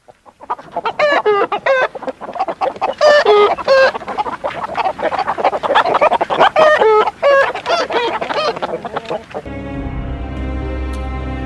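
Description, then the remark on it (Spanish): A crowd of 40 angry chickens in a henhouse clucks and squawks loudly in agitated, overlapping bursts as they suddenly rush at a man and woman who opened the door to collect eggs, before a steady musical tone takes over at the end. “Y cuando el hombre y la mujer abrieron la puerta del gallinero para recoger sus 40 huevos, se encontraron con 40 gallinas con cara de enfado que se abalanzaron de pronto sobre ellos.”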